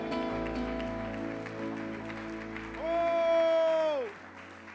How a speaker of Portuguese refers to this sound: Se você crê nisso, aplauda o Senhor e adore-o.